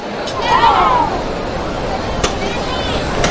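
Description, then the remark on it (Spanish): A short shouted call from the women bearers inside a procession float (paso) carrying María Santísima as it is lifted in the street, rising over a dense outdoor crowd murmur, followed by a couple of sharp knocks as the noisy throng continues around it. “Con esa voz de al cielo que gritaban desde dentro del paso.”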